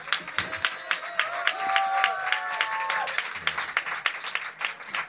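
A crowd applauds steadily with dense, rapid clapping throughout, a few whistles and cheers rising over it in the first seconds before the clapping carries on alone.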